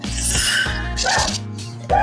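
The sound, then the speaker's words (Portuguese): A dog barks in a few loud, sharp bursts spread over a couple of seconds, with a final bark standing out as the loudest. “Cala a boca, cachorro, tô falando da Libertadores.”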